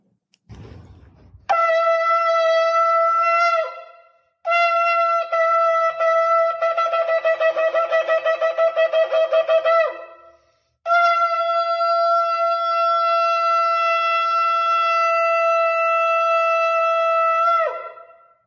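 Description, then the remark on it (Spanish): Shofar (ram's horn) blasts played from a video on a cell phone through a microphone, slightly tinny: a short sustained note, then a long run of rapid broken pulsing notes, then one long steady blast, loud with no talking. “Todo sobre el Shofar”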